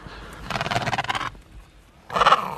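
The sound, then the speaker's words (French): Penguins give two harsh, growling calls, the first a long pulsing rasp and the second a shorter, louder burst after a brief pause, with no talking. “C'est marrant parce qu'on les entend, ils grognent presque. Hein. ça ressemble presque à des, grognements de, chats ou de mammifères.”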